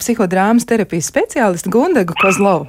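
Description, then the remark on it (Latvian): The speaker's own dog barks and yips in the background, a few short sounds scattered beneath a person talking steadily in the foreground. “mans suns, tas ir mans suns, kas te fonā grib riet.”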